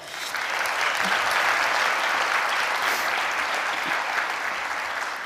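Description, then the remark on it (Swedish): A crowd gives Jesus a warm round of applause, a dense, even wash of many hands clapping that holds at a constant loud level for several seconds without any voices. “Ska vi ge Jesus en varm applåd?”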